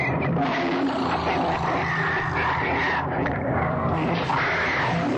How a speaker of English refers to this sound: They're growling. You always hear whales and octopus growling like that.